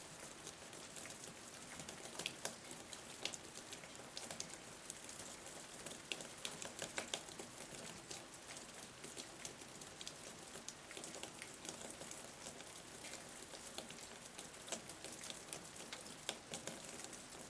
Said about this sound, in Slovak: situácii, keď dopadne kvapka na zem.